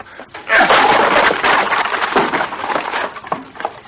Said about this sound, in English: Well, stand back, Vitamin. I'm going to crack that door open. uh, once more ought to do the trick.